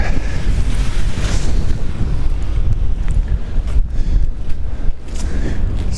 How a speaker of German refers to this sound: wieder so windig.